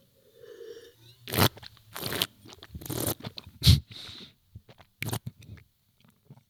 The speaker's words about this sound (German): dieses Schlürfen, ähm, das muss man natürlich nicht im Luxusrestaurant machen